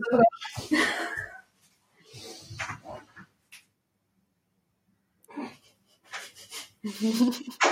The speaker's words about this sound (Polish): Przepraszam, że się tam patrzę, ale mój pies się dobija. Myślę, że coś tutaj chce też do nas dołączyć.